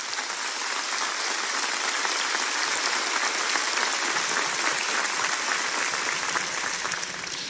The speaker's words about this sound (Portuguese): Aleluia, você pode aplaudir a Jesus.